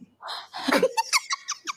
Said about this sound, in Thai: ขออนุญาตให้ถอยเก้าอี้ไปค่ะ แล้วยืนขึ้นค่ะ